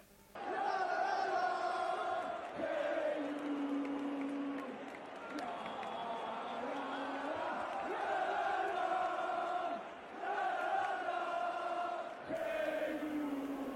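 A large football stadium crowd sings a chant together in sustained, melodic unison, the massed voices loud and continuous with a roomy, open-air echo.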